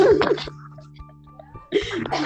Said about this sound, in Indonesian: wah batuk lagi batuk, batuk.